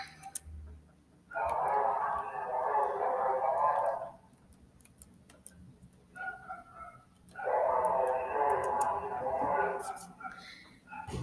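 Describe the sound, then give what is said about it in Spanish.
A dog wags its tail and lets out two brief, howling cries, each lasting a few seconds with a pause between them, fairly loud over a faint background of light ticking. “pareció que el ladrador comprendió porque movió la cola, puso cara de bondadoso y soltó un breve aullido que sonó lo siento.”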